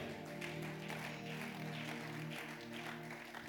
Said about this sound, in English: Somebody celebrate God with a good clap.